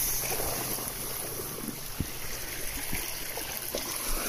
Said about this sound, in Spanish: Pero empieza a ver el agua, cómo se mueve, cómo fluye con cada ola y lleva tu respiración al ritmo de las olas, inhalando y exhalando, despacio, no hay apuro.